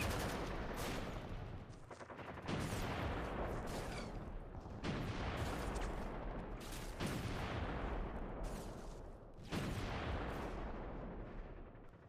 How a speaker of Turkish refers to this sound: Tam o sırada menzile giren gemilere Türkler top ateşine başlar. Donanma geri geri gitmeye çalışır. Patlar, patlar, patlar.